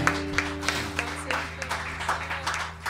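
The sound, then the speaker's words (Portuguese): An audience applauds the Lord with a steady wash of clapping and scattered louder claps, while low sustained keyboard notes hum underneath throughout. “Você pode aplaudir ao Senhor nesse lugar.”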